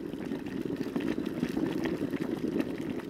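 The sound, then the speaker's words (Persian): Water bubbling and rumbling steadily as it boils on the fire in a kettle or samovar for brewing tea, a continuous churning sound with no voices, holding an even level throughout. “در حالی که آب روی آتیش در کتری یا سماور در حال جوش اومدنه صدای قلقل کردنش در فضای اطراف تنین انداز میشه.”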